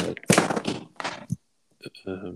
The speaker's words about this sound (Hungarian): csak közben levertem a Leesett a bicikli.